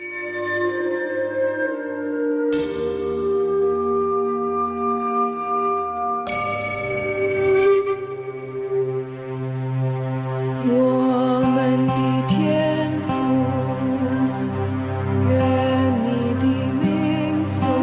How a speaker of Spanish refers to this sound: Y en esta ocasión vamos a escuchar una versión única del Padre Nuestro, de la oración del Padre Nuestro en chino y además tocada con instrumentos tradicionales chinos. Así que estad bien atentos porque suena así.